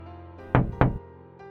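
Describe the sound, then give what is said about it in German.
Two hard knocks on a window pane, struck by a figure with its raised right arm, land about a quarter second apart, each a sharp thud with a brief ring, over a low steady background hum. “Sie schauten mich mit einem gruseligen breiten Grinsen an, während die Gestalt langsam ihren rechten Arm hob und zweimal heftig gegen die Scheibe klopfte.”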